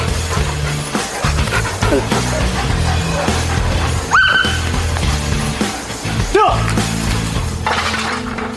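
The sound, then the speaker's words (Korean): Mir, a police detection dog, lets out a couple of sharp, separate barks partway through after finding the box holding a sample during a test, standing out above a steady bed of background music that runs the whole time. “시료를 찾은 미르는 이내 짖으며 자리를 지키는데요.”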